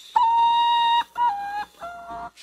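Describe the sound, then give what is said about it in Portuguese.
A common potoo's (mãe-da-lua) mournful night song, sung in the small hours: three clear, whistled notes, the first long and steady, each following one shorter and lower in pitch, a sad descending series with no voices. “E o canto dele, você já ouviu? é ótimo.”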